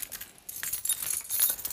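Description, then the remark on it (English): A bunch of keys jangles in a house, a bright metallic rattling that rises and falls in quick clinking bursts for a couple of seconds with no voices. “and there's the keys. I mustn't forget them.”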